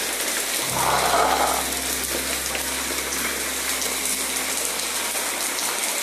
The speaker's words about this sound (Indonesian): oke ini baru beberapa menit hujan tapi nampaknya mendung juga merata kayaknya sih lama tapi yang nggak apa-apa kita nikmati aja hujan